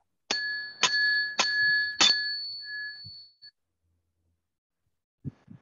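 A small ritual bell, inscribed with the symbols of the RMP ritual, is struck four times in steady succession to perform the ritual, each bright ring overlapping the last and leaving a sustained shimmering tone that fades out, followed by a soft thump near the end.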